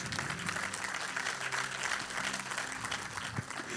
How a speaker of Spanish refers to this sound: Y amén. Denle un fuerte aplauso a su Dios, casa de Jesús.